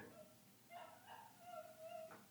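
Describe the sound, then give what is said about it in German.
A dog whimpers softly in the background, a thin, high whine that rises and wavers for a couple of seconds in a few drawn-out cries, with no voices over it. “Hört ihr eigentlich den Hund gerade im Hintergrund?”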